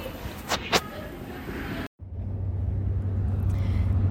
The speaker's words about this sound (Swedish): Nu sitter jag på bussen. Det är ganska mycket folk, vilket är lite ovant.